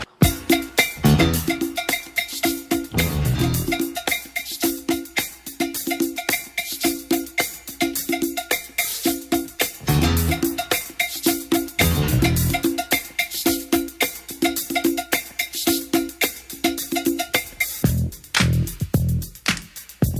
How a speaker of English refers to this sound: Pues bien, te hablábamos de una canción de unos 14 eh, minutos y pico y eso es lo que te vamos a poner aquí ahora en el Sonidos y Sonados. Fue el primer éxito del mundo del hip hop.